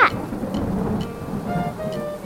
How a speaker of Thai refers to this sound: เฮ้ยเธอเก่งมากเลยนะรู้ไหมที่ทำให้ฝนตกลงมาแต่ว่าฝนมันตกหนักเกินไหมหรือเปล่าอะตอนเนี้ยพวกเราทำอะไรไม่ได้เลย แม้แต่จะออกไปหาอาหารพวกข้าก็ทำไม่ได้